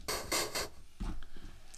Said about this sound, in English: That noise was our DM grabbing dice.